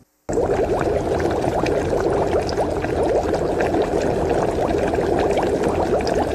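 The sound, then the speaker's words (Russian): Water is drained from cooked spaghetti or noodles in a steady, heavy gush, with a continuous loud splashing rush and bubbly gurgles that start abruptly and run unbroken to the end. “Приготовьте, как указано на упаковке, слейте воду и отставьте в сторону.”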